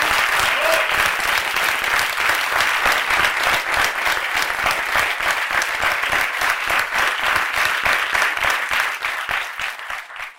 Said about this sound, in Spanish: Les damos un fuerte aplauso a los dos.